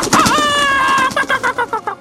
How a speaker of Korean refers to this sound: 베란다는 닭똥으로 범벅이 되고 엄마가 애지중지 아끼시던 화초는 닭들이 다 쪼아먹었죠. 무엇보다 시도 때도 없이 울리는 두 닭의 울음소리!